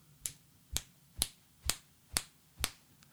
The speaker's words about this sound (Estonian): kuulaja panin pöidla ja fucking näpu kokku ja lasin nimetissõrme, nimitis, nimetissõrme lõdvaks, nii et see langeks täpselt pöidla ja fucking näpu vahelisse prakku, tekitades seal õhu äh, plaksu, plaksu õhuga.